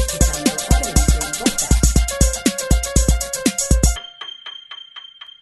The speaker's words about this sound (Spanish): Bueno, pues no me acordaba ni que teníamos este indicativo.